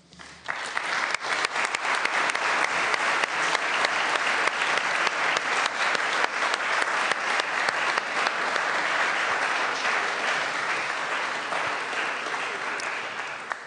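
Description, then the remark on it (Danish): An audience breaks into sustained applause, a dense, even wash of many hands clapping that holds steady for over ten seconds before tapering slightly at the end, following the end of a speech. “Og med øh, med de bifald, så er jeg helt sikker på, at der i hvert fald er et par spørgsmål til dig.”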